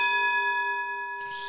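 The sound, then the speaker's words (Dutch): A gong, struck to signal the end of a conversation, rings out with a steady, shimmering metallic tone that hangs in the air and slowly fades, followed by a short breathy hiss at the end. “Als de gong gaat, is het gesprek voorbij.”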